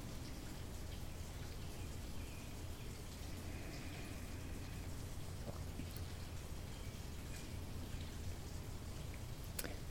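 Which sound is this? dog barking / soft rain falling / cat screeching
soft rain falling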